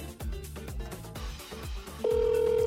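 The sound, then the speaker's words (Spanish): Music plays briefly, then a steady, loud telephone ringing tone cuts in near the end and holds without being picked up. “estar el teléfono para que nos cuente cómo le está yendo.”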